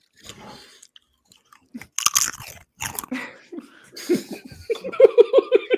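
Loud, close-up crunchy chewing with repeated sharp, crackling bites, followed by a brief burst of giggling toward the end.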